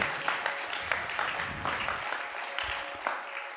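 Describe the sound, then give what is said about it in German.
A crowd claps steadily for several seconds, a dense wash of many hands with scattered sharper claps standing out, moderately loud and without voices. “und diesem Gott einfach, einfach einen Applaus.”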